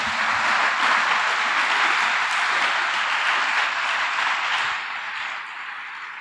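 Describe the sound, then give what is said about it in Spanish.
Sustained applause from an audience for the Lord, a dense, steady wash of many hands clapping at a fairly loud level for about six seconds, tapering slightly toward the end. No voices are heard. “Creo que Él merece un fuerte aplauso por ello.”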